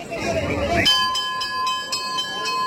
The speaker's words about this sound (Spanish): Ya parece que se escucha la campana.